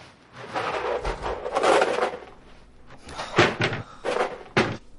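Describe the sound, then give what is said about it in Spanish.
Cupboard doors bang open and shut several times in quick succession, with wooden knocks and rattling as a man searches through the cupboards; fairly loud, with no talking. “Él busca por los armarios y ella devuelve la leche a la nevera.”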